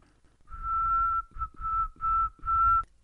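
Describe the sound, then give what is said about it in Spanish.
Someone whistles with their lips: one long steady note, then a brief chirp and three more sustained notes in a short, even sequence, clear and alone with no talking. “Lo que hace es el sonido que haces con los labios, ¿no? Cuando los juntas y pues, pues la fricción del aire, ¿no?”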